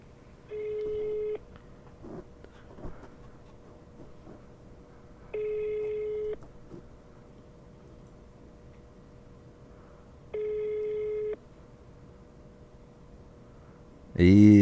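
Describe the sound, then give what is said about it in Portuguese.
A phone ringback tone sounds three times, each long steady burst about a second apart by four seconds, repeating unanswered over a faint background hum while calling an organization's second telephone number, ending with a brief loud noise. “Por que ele não tá atendendo o CNA? Tem outro telefone, vamos ligar o outro.”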